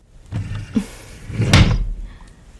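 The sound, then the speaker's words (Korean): A drawer that was left open is pushed shut: it slides along briefly, then shuts with a single solid, fairly loud thud, followed by a faint rattle as it settles. No one speaks. “탁 하는 소리와 함께 서랍이 닫혔다.”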